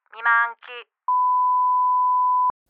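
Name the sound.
answering machine tone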